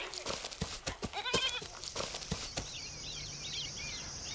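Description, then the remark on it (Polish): Sheep bleat in short, wavering cries amid scattered clicks and rustles. Afterwards, high chirping birdsong continues over a steady outdoor hiss. “Widzę moich braci z daleka i owce.”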